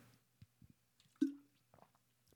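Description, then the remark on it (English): Someone takes a quiet sip of water: soft wet mouth clicks, then one distinct gulp midway, followed by a few faint lip sounds. No one speaks. “Excuse me there, but like take a sip of water.”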